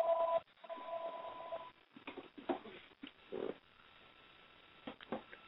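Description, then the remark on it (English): A steady telephone tone sounds briefly, then continues, followed by scattered clicks and clunks as a phone handset is picked up and handled on the line. “I gotta answer this phone.”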